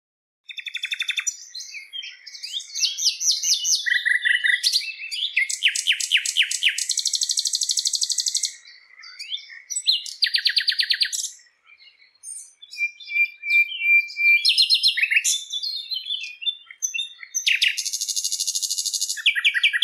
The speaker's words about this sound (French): Tandis que chez notre ami le rossignol, qui porte vraiment bien son nom, il a un répertoire d'une centaine de chants.